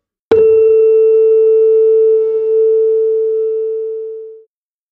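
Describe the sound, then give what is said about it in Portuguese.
A steady, pure sine tone on a high A begins with a soft click and holds evenly for about four seconds before tapering off, alone with no voices. “Uma nota lá aguda, ela vai ter sempre a mesma frequência.”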